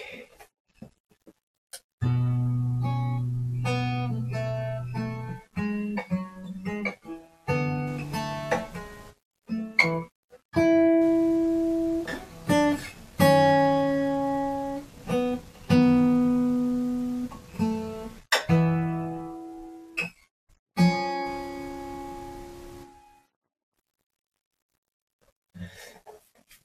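Solo fingerstyle practice on a J45 acoustic guitar before bed: plucked notes and chords ring out and decay in an unhurried, halting phrase for about twenty seconds, then fall silent.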